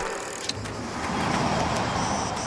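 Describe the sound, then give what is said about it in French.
A car approaches along a quiet departmental road in the Var, France, its broad engine and tyre rumble swelling steadily and staying loud near the end, with no voices present. “De la patience, des trains, des bus, puis une bonne heure de marche au bord d'une route départementale du Var avant d'emprunter un chemin rocailleux qui s'élève au milieu des arbres provençaux.”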